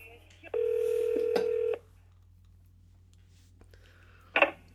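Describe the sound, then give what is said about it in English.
A steady telephone tone sounds for just over a second, followed after a pause by a short burst of dialing beeps, like a call being transferred over the line. “All right, so let me just transfer you back.”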